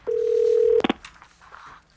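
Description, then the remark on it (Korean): A steady telephone dial tone hums for most of a second, then a quick burst of several keypad beeps as a number is dialed to call a social worker, followed by faint background noise. “오랫동안 기다려온 합격의 소식을 당장 누군가에게 알리고 싶었기에 함께 기쁨을 나눠줄 사람을 찾다가 나도 모르게 복지사님께 전화를 걸었죠.”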